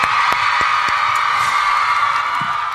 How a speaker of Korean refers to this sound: 그래도 봤으니까 박수, 박수!